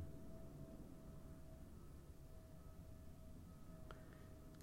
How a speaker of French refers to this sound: Et là, toujours le bruit de cet avion.